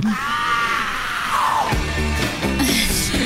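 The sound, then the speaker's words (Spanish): A person lets out a loud, sustained shout, the voice rising and falling in pitch over a few seconds with no words spoken. “grite más fuerte, por favor.”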